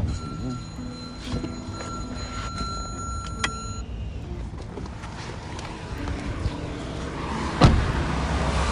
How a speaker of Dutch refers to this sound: nu rijdt de auto door